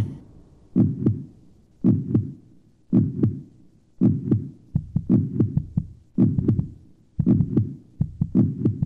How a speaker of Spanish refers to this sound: Los primeros sonidos que percibe el ser humano en estado fetal son los latidos de su madre y los de su propio corazón.